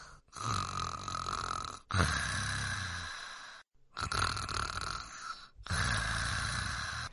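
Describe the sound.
A little bear in a children's story snores while lying on a soft bed to sleep through the winter: four long, raspy snores in a steady rhythm, each a rough rattling drone about a second and a half long, separated by brief silent pauses, loud.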